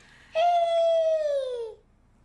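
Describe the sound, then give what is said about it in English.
A baby girl lets out one drawn-out, high-pitched vocal sound over the phone, a sustained "aah" that slowly slides lower over about a second and a half, clear and alone with no other talk. “Listen to her talk.”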